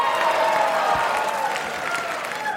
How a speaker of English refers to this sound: I don't need your pity claps.